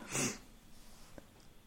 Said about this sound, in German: oh, ich muss mal eben niesen, glaube ich, entschuldigt.